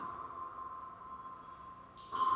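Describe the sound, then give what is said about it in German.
A steady, sustained electronic tone from a sound art installation hums throughout like a drawn-out sonar ping, with a brighter burst of higher, shimmering sound swelling in near the end; no one speaks. “Das ist nämlich die Installation Sonic Fountain No. 2 von Doc Atkins.”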